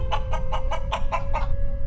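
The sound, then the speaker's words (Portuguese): A voice imitates a hen clucking, about seven short, evenly spaced clucks in a quick rhythm, fairly loud over a low background rumble. “que tem os animais registrados, é uma galinha.”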